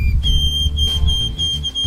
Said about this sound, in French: Le bruant à couronne blanche, par exemple, chante plus doucement avec des notes plus graves.